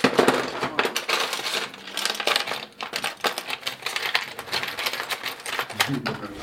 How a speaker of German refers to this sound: Jetzt wird hier wild gesucht in einem Werkzeugkoffer